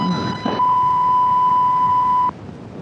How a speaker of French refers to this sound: C'est brouillé, censure, la censure. Oh, la vilaine censure.